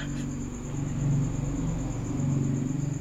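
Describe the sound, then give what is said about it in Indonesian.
A motorcycle passing by during a recording: its engine hums with a low, steady rumble that swells slightly and holds for a few seconds, with no one speaking over it. “Seperti bisa kalian dengar ada motor lewat tadi ya.”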